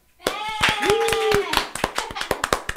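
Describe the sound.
An audience breaks into applause for a guest, quick dense clapping joined briefly by a cheering voice, then thinning to a few scattered, sharp claps as it fades.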